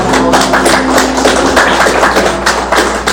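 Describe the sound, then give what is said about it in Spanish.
A crowd applauds the wives steadily and loudly, a dense wash of overlapping claps that runs unbroken for the full few seconds with no voices on top. “mira las esposas todas bien guapas, un aplauso a las esposas, por favor, mira bien guapas.”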